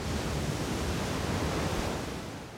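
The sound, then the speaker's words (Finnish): A steady, broad rush of surf washes continuously, like ocean waves breaking on a beach, loud with no voices, easing off slightly toward the end. “Valtameren aallot lyövät rantaan.”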